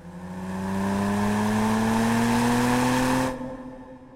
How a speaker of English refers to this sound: It's a 1954 Porsche Spider, a car built for pure speed, for breaking limits, for danger. It's a beautiful car, the Spider.